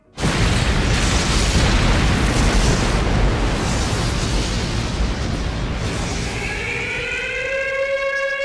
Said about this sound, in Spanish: Nadie se explicaba por qué, en un momento abrupto, un coche bomba terminaba con la vida de tantos argentinos.